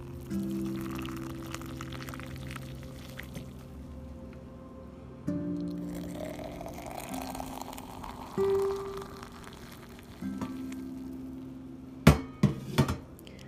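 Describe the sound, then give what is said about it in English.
Nescafe coffee brewing in a small teapot: a steady low humming tone that shifts pitch in steps over a rising bubbly hiss, ending with a few sharp metallic clanks. No one speaks. “I love the sound of my Nescafe as it's brewing on my little teapot that I burn my finger on every single morning.”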